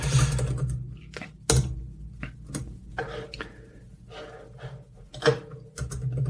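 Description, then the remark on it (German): Irregular bursts of computer keyboard typing while searching online, sharp clicky keystrokes arriving in uneven clusters with short pauses between, moderately quiet, with no talking. “Tastaturgeräusch, live, authentisch.”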